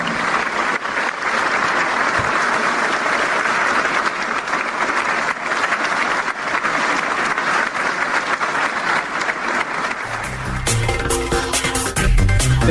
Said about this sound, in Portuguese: Depois dessa manifestação, Alexandre de Moraes foi aplaudido quase que por um minuto, ininterruptamente. De forma quase uníssona, por um público que se dividiu entre os que aplaudiam sentados e a boa parte, a maioria dos que aplaudiam de pé.